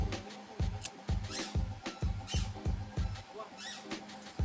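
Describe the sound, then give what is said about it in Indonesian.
A child's squeaky sandals squeak over and over in a quick, steady walking rhythm while someone nearby washes a car, each step giving a bright, chirpy squeal. The sound is prominent, with a faint background hum. “nih ada teto teto teto teto ada yang lagi nyuci mobil bawa anaknya pakai sendal gitu jadi sorry kalau berisik”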